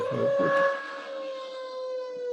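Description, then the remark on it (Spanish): A power drill bit bores into a wall, opening with a rough grinding burst before settling into a steady, high-pitched motor whine that holds loud and even to the end. “Ahora, durante, durante el video va a salir una mecha de taladro así en la pared atrás tuya, O está colgando muchos cuadros, o no sé qué onda.”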